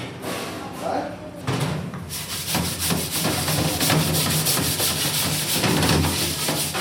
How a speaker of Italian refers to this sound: Eh, le pentole van pulite.